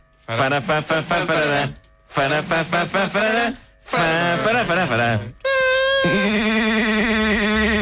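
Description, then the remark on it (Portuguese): A voice imitates the siren-like theme tune of a famous Portuguese radio programme: three choppy, rapidly pulsing vocal phrases, then one long, loud, wailing note that holds steady until the end. “Parecia uma sirena a chamar as pessoas para a fábrica.”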